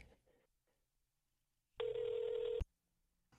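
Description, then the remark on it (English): A single burst of telephone ringback tone as a phone call is dialed, a steady electronic hum lasting under a second, loud, with near silence before and after. “Okay, it's ringing now.”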